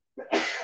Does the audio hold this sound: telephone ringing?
no